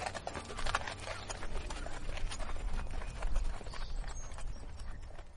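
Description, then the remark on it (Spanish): Horse hooves clip-clopping in a steady, continuous rhythm as several mounted riders walk together down a curved, sloping ramp into a tower, at moderate volume, with a low rumbling background throughout and no voices. “Los jinetes descendieron por la rampa, cruzándose con esclavos, criados y funcionarios”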